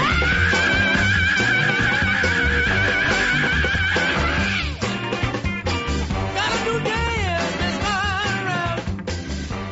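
A man lets out loud, drawn-out, high-pitched shrieks that waver up and down in pitch, continuous over a dense, busy background, with a brief break midway.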